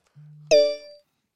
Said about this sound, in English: I get notifications and shit on my phone. I see. You get the weirdest motherfucking notifications I've ever heard.